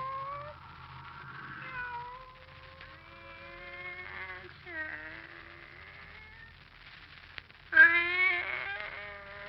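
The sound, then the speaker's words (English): A pet cat named Kitty meows repeatedly in long, drawn-out, wavering calls, with a louder, sharper meow near the end over a faint low rumble. “Oh. It's you, Kitty. Barbara's pet.”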